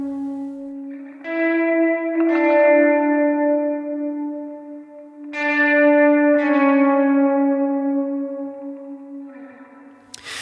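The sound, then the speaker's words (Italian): A short electric guitar theme soaked in heavy reverb, entering in a song's second verse, with a few sustained notes struck in pairs that ring out long and blur into each other, played alone with no voices. “Qui entra un piccolo tema di chitarra elettrica molto riverberato ed è come se per la prima volta, dopo che ci siamo ambientati, intravedessimo una scala di legno che porta al piano superiore.”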